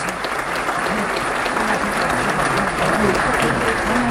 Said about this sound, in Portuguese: Então, uma salva de palmas também a todos os nossos prefeitos que estão aqui. São dezenas de prefeitos.